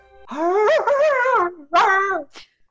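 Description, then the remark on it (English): A person vocally imitates a hyena call: a long, wavering, moaning whoop rising and falling in pitch, followed by a second shorter rising whoop and a brief breathy trailing sound. “Uh, oh, hyenas do sort of a um, like a.”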